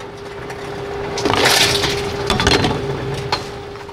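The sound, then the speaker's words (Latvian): Empty glass bottles and cans clatter and crunch as they are fed into a deposit return machine in a shopping centre basement in Latvia, with a steady mechanical hum underneath and a few sharp clinks near the end. “Atpakaļ tirsniecības centra pagrabā Ernests Sierulis turpina aromātā nodot tukšās stikla pudeles un skārdenes”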